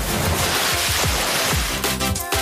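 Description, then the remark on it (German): Loud, continuous roar of surf breaking, a dense wash of crashing water with rolling surges and no voices. “Ein kurzer Sprint zum Boot, mit den Kollegen das Ding in die Brandung schieben, der Sprung an Bord, Startleine ziehen, Motor läuft und ab durch die peitschende See.”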